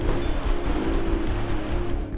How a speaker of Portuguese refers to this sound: Os barqueiros locais ajudaram a enfrentar a forte correnteza que insistia em desafiar os motores.